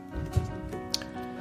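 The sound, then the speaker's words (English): Fizzy cucumber tonic water pours into a glass, a soft bubbling patter with a couple of small splashy plops, fairly quiet and with no voices. “And then um, I'm going to put a bit of um, cucumber tonic water into this.”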